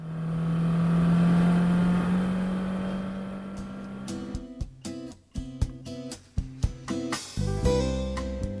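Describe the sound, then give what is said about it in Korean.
A car engine drones steadily with a low, even hum, then the sound turns choppy with a series of sharp knocks and shifting tones in the second half. “아, 나 피곤해. 운전하는 거 안 보여.”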